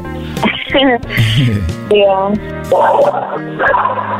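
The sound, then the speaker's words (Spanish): A dog barks and yips in several loud bursts with whiny, pitch-bending tones, separated by brief pauses, and other voice-like sounds are mixed in. “Oye, ¿tienes perros? Sí, tengo un perro que se llama Lobo.”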